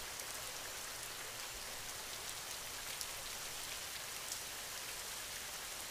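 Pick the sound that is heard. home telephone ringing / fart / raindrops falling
raindrops falling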